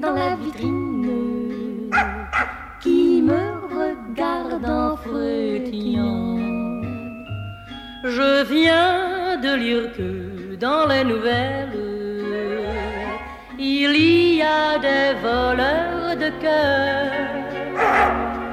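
Short dog barks pop up between lines of a bouncy sung tune, with a woman singing over light instrumental backing and a steady bass.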